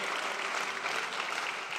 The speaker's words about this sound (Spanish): Vamos, eso merece un aplauso fuerte al Señor.